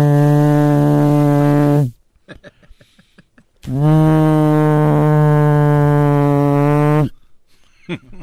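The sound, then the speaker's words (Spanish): A person imitates a ship's horn with their voice, producing two long, loud, steady droning blasts separated by a short pause, with faint background noise between them. “Oye, chico, yo que yo tengo efecto en la boca.”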